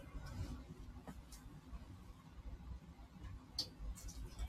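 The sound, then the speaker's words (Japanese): Bell crickets (suzumushi), brought by a customer each year, chirp faintly in the background, giving a few short, high-pitched trills at irregular moments over a low, steady hum, with no talking. “実はですね、毎年、今聞こえてるのがね、スズムシなんですけど、あの、お客さんがね、スズムシ毎年うちに持ってきてくださるお客さんがいて、泣いています。”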